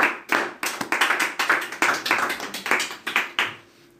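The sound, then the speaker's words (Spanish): A small group applauds with brisk, overlapping hand claps for about three and a half seconds, then the clapping fades out quickly. “Bien, aplauso, por favor.”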